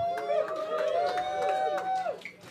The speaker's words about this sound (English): That amount of applause was depressing. I say that for two reasons. First of all, it totally was. I asked you for enthusiasm, you gave me woo yeah, that, that was worse.